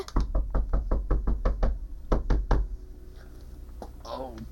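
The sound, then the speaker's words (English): A rapid series of loud, sharp knocks on a wooden door, about a dozen in quick succession with a brief pause, then near silence and a faint voice at the end. “Now open the door and welcome me.”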